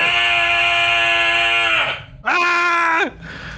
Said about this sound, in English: You want me to just yell? Yes, yell.